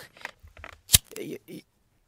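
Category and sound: household object, lighter being clicked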